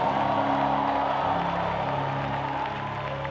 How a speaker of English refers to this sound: Come on, clap about it and shout about